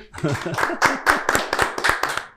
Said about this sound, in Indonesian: Tepuk tangan dong, boleh dong?